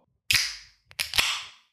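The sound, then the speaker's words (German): A drink can pops open with a sharp crack and a rush of fizzing hiss that fades, then a small click and a second crack release another burst of fizz. No one speaks. “So, passt auf, ich mache die Dose auf.”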